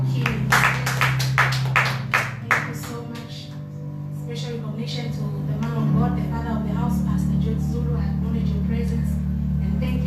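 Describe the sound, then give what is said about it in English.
An audience claps their hands in a brisk burst for a few seconds in recognition of God the Father, the Son, and the Holy Ghost, then the clapping fades and a low, sustained keyboard chord drones on alone. “We can clap our hands for”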